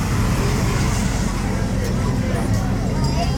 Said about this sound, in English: The pace car.